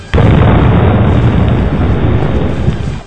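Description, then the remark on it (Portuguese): A sudden, loud explosion sound effect bursts in with a sharp onset, then rolls on as a sustained, rumbling roar of debris and low boom for several seconds with no voices. “E eu vou dar uma olhada na sala de pólvora, que eu acho que o, o João lembrou que ele tem um isqueiro.”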